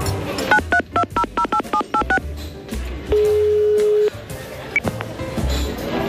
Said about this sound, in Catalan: Espera, deixa'm el telèfon que te'l trucaré.